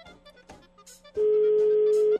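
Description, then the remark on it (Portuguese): A phone's ringback tone while calling someone: after a few soft clicks and faint sounds, a loud, steady electronic beep sounds for about a second, clear, with no talking over it. “Tá chamando.”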